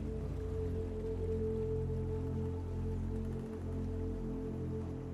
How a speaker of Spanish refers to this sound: Se escucha un pequeño riachuelo que llega desde las montañas hacia ese lugar. ¿Logras escucharlo? Déjate llevar por el sonido.